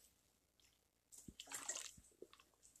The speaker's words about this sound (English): Excuse me, I'm take a sip of water.